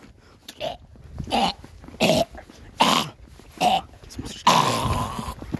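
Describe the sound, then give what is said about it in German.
A voice imitates a video game monster's growl with about five short, raspy bursts in an uneven rhythm, then one longer, drawn-out snarl, fairly loud. “Das war gar nicht so schlecht. Enderman-Sound, weißt du?”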